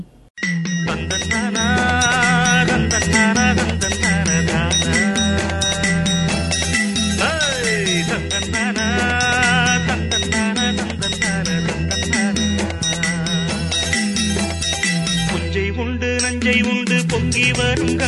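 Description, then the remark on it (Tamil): A song plays on the radio station Pasumai 90.4, loud and steady from start to finish, full and bright with layered melodic instruments over a regular low rhythmic pulse, with no talking over it. “அதுக்கு முன்னாடி அழகான பாடல் வந்து கேட்டு வந்துடலாம் தொடர்ந்து எங்கள் பசுமை தொண்ணூறு புள்ளி நான்கு உங்கள் முன்னேற்றத்தை காண வானொலி”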